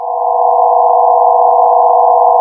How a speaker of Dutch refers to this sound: Weinig mensen weten dat je uit het geluid van een ster soms kan afleiden of het om een jonge ster gaat of om een gepensioneerde ster.